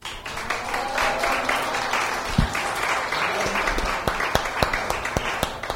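A crowd applauds steadily, a dense wash of many hands clapping, with a few sharper individual claps standing out toward the end as the applause continues throughout.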